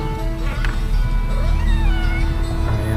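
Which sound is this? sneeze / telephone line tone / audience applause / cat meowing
cat meowing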